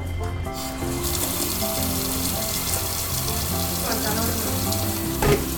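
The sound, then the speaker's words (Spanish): Water pours steadily into a hot pot of cooking meat, not much water being added, setting off a loud, continuous sizzle and hiss that fills the whole stretch, with faint clinks of cookware and no voices. “Aquí le vamos a agregar el agua”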